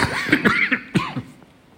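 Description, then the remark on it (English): A person coughs several times in quick, uneven bursts, fairly loud, with a brief throaty rasp between coughs before it trails off into quiet. “oh, gee, a sneeze and a cough.”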